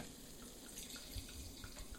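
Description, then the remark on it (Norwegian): Sparkling wine pours steadily into a glass, a soft continuous fizzing rush with small bubbling splashes, fairly quiet, with no voices. “Særlig med forventning om at det kommer noe i mitt glass.”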